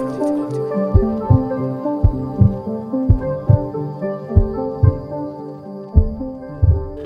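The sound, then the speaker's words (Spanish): A heartbeat sound effect thumps in steady lub-dub pairs, deep and prominent, layered over sustained musical tones with no voices. “Sin latidos no hay ritmo.”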